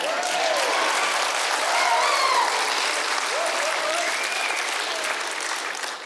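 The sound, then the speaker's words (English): A church audience at worship claps steadily for several seconds, a dense, even wash of applause with scattered voices calling out underneath. “Quit clapping or I'll step on your thing.”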